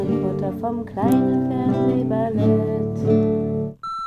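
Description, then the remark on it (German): A steady electronic answering machine beep sounds clearly at the very end, following a few seconds of a warbling, voice-like recorded greeting. “Okay, dann lass direkt einen Anruf Anrufbeantworter ja. machen.”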